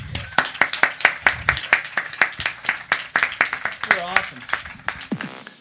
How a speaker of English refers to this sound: And uh, thank you, everybody. Uh, please join me again in a uh, round of applause for our two guests today,